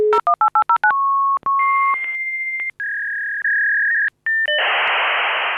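A fax machine dials with a quick run of touch-tone beeps, then emits steady handshake tones and whistles before bursting into a loud, hissing stream of data noise.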